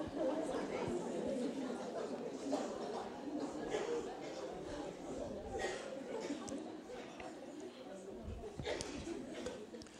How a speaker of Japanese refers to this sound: 今ちょっと隣の皆さん私が水の間に隣の皆さんにですね神様の声を聞きましょうっていうふうにちょっと言い合ってくださいどうぞ